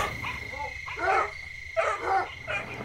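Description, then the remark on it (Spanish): Dogs bark in short, scattered bursts all around, while a steady high insect-like drone hums underneath; nobody speaks. “Destrabó difícilmente los dedos con que su hijo había venido sosteniéndose de su cuello y al quedar libre oyó cómo por todas partes ladraban los perros.”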